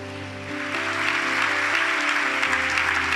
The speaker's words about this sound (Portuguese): Vamos aplaudir a Jesus então, bem alto.